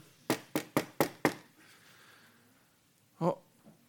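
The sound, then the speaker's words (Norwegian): Mary knocking on Elizabeth's door: five quick, evenly spaced crisp knocks, followed after a short quiet stretch by one more dull thump. “Men da kommer Maria, så banker hun på døren.”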